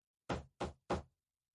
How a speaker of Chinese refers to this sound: 敲门的声音响起，是看门的老大爷。